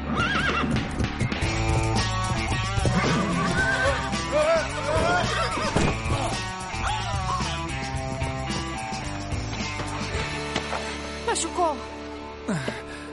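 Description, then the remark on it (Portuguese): A horse whinnies loudly and repeatedly amid clopping hooves and a busy, layered background; voices can be heard now and then under the commotion. “Eu prometo que não faço mais você montar a cavalo.”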